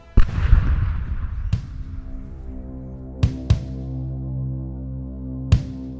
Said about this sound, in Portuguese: Às 10h50, o estrondo de um tiro de canhão sacudiu o Rio de Janeiro. O disparo tinha saído do Minas Gerais, era o sinal combinado para chamar os outros navios.